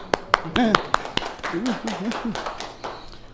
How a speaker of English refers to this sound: Good job. Clap.